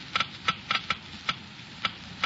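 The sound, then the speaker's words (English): A Geiger counter clicks slowly and irregularly, sharp dry ticks scattered at uneven intervals over a faint low hum, with no voices, measuring the low wear rate of critical engine parts lubricated with new RPM motor oil. “First, let's listen to the Geiger counter slowly click off the low wear rate of new RPM.”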